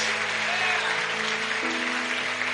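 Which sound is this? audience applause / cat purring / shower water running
audience applause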